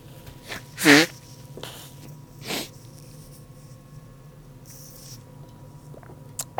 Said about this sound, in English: Anyway, so um, again, one second. I got to blow my nose. One second.